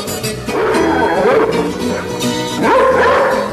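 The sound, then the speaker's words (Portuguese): A dog yelps and whines loudly, its sliding, bow-wow calls running almost continuously over a dense, busy background for a few seconds. “Sai, cachorro!”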